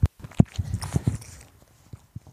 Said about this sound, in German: Hört man ihn ja, ne? Und ein, ein leichtes Schmatzen, ja.